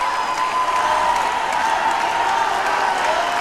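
A large audience at a Menningarnótt (Culture Night) concert on 19 August 2006 claps steadily and continuously, a dense wash of applause with scattered cheers, sustained and even throughout as the crowd calls the performer back for a second encore.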